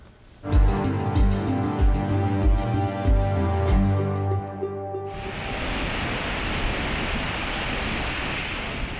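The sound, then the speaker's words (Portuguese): After a few seconds of rhythmic music, a loud, steady roar of the large Iguaçu waterfalls takes over, a dense rushing wash of falling water that continues unbroken to the end. “Mas sim, depois de caírem das cataratas, as águas do Iguaçu se juntam ao rio que enfrenta a sua pior crise em 91 anos.”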